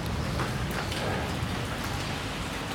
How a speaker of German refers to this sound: Und der Regen von dem Gerüst tropft runter.